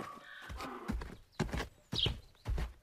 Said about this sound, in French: J'avance encore un peu et de nouveau des ânes. Plusieurs ânes qui semblent attendre, je ne sais pas quoi, dans une rue près d'une ferme.